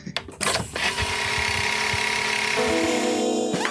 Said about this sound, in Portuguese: Bom dia, desculpa a obra aí, viu,